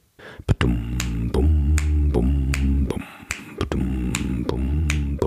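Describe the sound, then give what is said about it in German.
A musician counts in with sharp finger snaps on a steady two-beat pulse, two beats per bar, and a band joins with a bouncy, loping two-beat groove, the snaps continuing on every other beat. “Jetzt wissen alle, dass es ein Two-Beat gemeint ist.”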